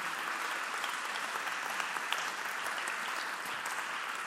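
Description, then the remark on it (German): Steady applause from an audience in Bern, a dense patter of many hands clapping at an even level throughout, with no voices rising above it. “Und ich bitte alle anderen um einen fetten Applaus.”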